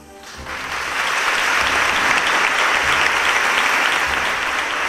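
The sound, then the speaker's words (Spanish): Sustained applause from a large crowd of brotherhood members greeting the announcement that Nuestra Señora del Rocío will be canonically crowned on 5 July 2025, at the reopening of the Templo de Santiago; it swells within the first second and continues steadily at full strength, a dense wash of clapping with no talking over it. “Pues ya ven que el anuncio fue saludado por, eh, los hermanos con aplausos, con esa salva de cohetería.”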